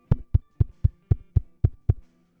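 Eight quick, evenly spaced knocks on a door, solid and fairly loud with a woody thud, delivered in a steady rhythm with no voices.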